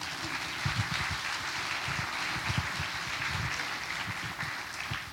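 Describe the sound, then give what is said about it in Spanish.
A church audience applauds steadily, giving a round of applause to God during a sermon, a dense wash of many hands clapping with a continuous crackling texture, moderately loud and sustained throughout without any voices. “Démosle un aplauso a Dios, hermanos.”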